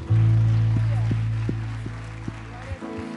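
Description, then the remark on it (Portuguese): An audience applauds for the Lord one evening, in a steady, dense wash of clapping, layered over a loud sustained low keyboard chord, with a few sharper accents roughly every half second. “Então, uma salva de palmas para o Senhor.”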